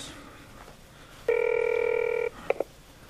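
A phone line tone sounds once, steady and about a second long, followed by two quick electronic beeps like a call connecting. Fairly clear against quiet, with no talking.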